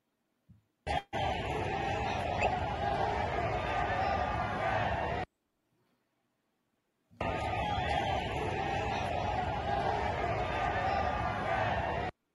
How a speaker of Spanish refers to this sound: sí se escucha pues los gritos, todo el, apoyo, el vitoreo al, presidente Andrés Manuel López Obrador